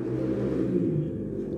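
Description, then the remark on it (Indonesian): A motorcycle rumbles by on a main road beside a house, a steady low growl that holds loud for the whole moment, with a slight rev toward the middle. “Hmm, maafin suara sound motor yang lewat ya.”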